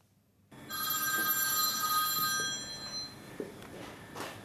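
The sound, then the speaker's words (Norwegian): A telephone rings at the reception of a laser tattoo-removal clinic in Drammen, Norway, with a bright, sustained electronic trill for about two seconds, then fades into quiet background noise with a few soft knocks and rustles. “Kunder ringer, og kunder er på vei inn og ut døra.”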